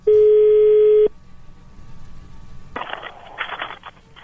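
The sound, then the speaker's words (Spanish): A loud, steady telephone tone sounds for about a second as a call is being dialed, then cuts off to a quiet hum before crackly, band-limited phone-line noise comes up, as if the call is connecting. “Bien, bueno, se está marcando.”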